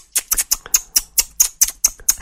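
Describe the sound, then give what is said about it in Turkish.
Two people click their tongues together at the same time in a quick, steady run of about ten sharp clicks, a few of them slightly doubled where the pair fall out of sync. “Sen de cık cıkla ben de aynı anda.”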